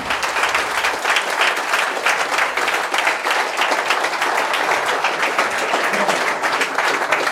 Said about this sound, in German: Gebt einen riesengroßen Applaus an Frank Thelen.